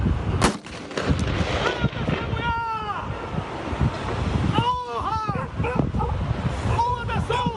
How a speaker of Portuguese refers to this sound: Os tiros de fuzil foram disparados por um soldado da PM.